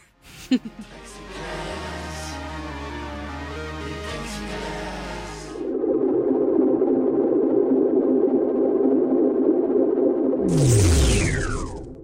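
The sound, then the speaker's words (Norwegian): A Danish electronic music track plays loudly on the radio show Skumma kultur, with sustained synth tones, then shifts into a dense, buzzing layer, ending with a sweeping downward whoosh. “Men skal vi bare høre på noe dansk musikk, kanskje?”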